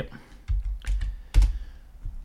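A few crisp computer clicks and taps, spaced irregularly over about two seconds, with soft low thumps under each one and no voices, as someone clicks on the quiz answer ANC.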